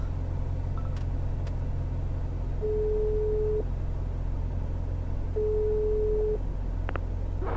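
Two long steady electronic ringback tones while placing a phone call, each about a second, separated by a pause, over a constant low engine rumble as if inside a moving car; a few faint clicks, no talking.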